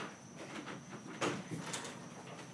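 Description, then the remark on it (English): A door is opened with a short clunk and a second softer knock half a second later, fairly quiet against a steady faint high-pitched hum and room noise, with no one speaking. “Go ahead, open the door.”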